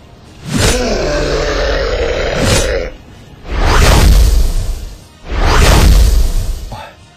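A deep growling roar, then two heavy, loud whooshing swings of a blade cutting through the air in quick succession in a fight against a demon, forceful, with no talking.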